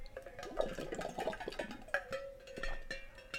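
Someone drinking water: a quick run of wet sips and gulping swallows with small clicks, fairly quiet and irregular, with no one talking.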